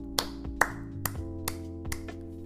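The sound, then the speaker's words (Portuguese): Five sharp hand claps by one person applauding a listener's question, at an even, unhurried pace, each a crisp slap that fades quickly, over a low steady hum in the background, with no talking. “Para palmas, até vou dar palmas mesmo, ó.”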